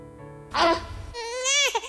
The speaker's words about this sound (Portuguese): Chora, meu bebê lindo! Glórias e glórias a Deus. Olha, quem é mãe sabe o que eu tô passando, hein? Ô, oh, glória, esse choro é gostoso, um choro bonito, viu? Ô, saudade de escutar minhas filhas chorando assim.